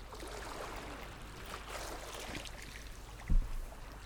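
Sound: sea water lapping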